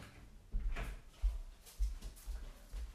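A door being closed, heard as a series of dull, low thuds and light rattles spread over a few seconds, fairly quiet, with no one talking.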